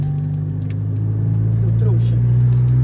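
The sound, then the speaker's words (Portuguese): A car engine drones loudly and steadily while passing a larger car, its low rumble swelling slightly toward the end, with faint voices murmuring underneath. “é que eu tô passando um carro maior aqui, ele veio que veio, que veio quicando.”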